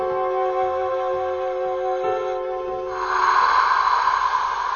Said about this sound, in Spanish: Ay, no refunfuñes, por Dios, que te vas a ahogar con las flemas.